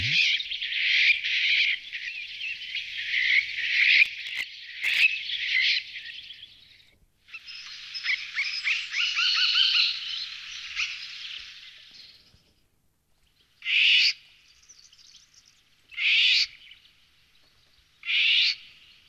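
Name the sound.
bird calls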